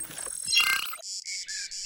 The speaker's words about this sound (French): Ah, je reconnais les cigales, j'imagine qu'on est dans le sud-est. Oui, on n'est pas loin de Marseille.